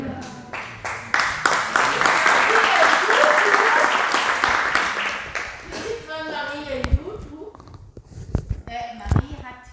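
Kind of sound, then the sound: crowd, applause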